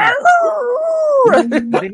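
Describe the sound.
A voice imitates the squeal of a pig being slaughtered: one long, wavering, high-pitched wail, then three short choppy squeals in quick succession, loud.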